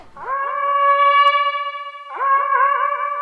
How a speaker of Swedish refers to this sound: Ett jakthorn liksom. Varifrån? Söderifrån, från stigen. Kan jag avgöra om det är vanliga, alltså mänskligt eller kan det vara så att de jagar av något annat? Nej, det här låter väldigt mänskligt. Vanligt Ett vanligt jakthorn.